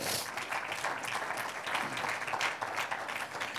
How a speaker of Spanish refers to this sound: ¿Cuántos dicen gloria a Dios? Un aplauso al Señor.